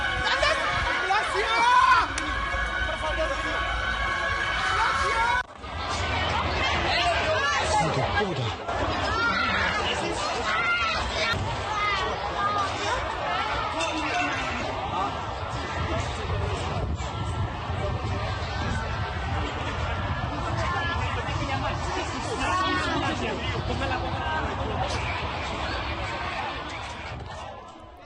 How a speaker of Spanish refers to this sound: Vamos a escuchar parte de la conmoción que se vivió en la zona minutos después de este atentado.